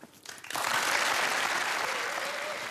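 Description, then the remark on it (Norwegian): The studio audience of the talk show Skavlan breaks into applause, a brief quiet start swelling within half a second into dense, steady clapping that holds loud and even to the end with no voices over it. “Publikum hos eh, Skavlande klappa.”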